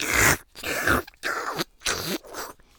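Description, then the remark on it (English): A voice imitates noisily eating watermelon with four loud, wet slurping and chomping bursts in quick succession, separated by brief pauses. “like you know when you get a watermelon like my friends used to say it was like you never heard anyone eat a watermelon like me because when I eat a watermelon I'm like I proper like this I'm like”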